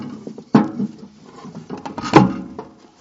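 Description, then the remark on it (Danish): A wooden block is knocked and wedged into place behind a mailbox opening to keep firecrackers from being pushed in, giving two sharp hollow knocks amid softer scraping and clattering handling sounds, with no one speaking. “Det andet tip, det kræver lidt mere, men det er lidt eller det at lave en klods på bagsiden af åbningen, jeg sætter en klods i spænd.”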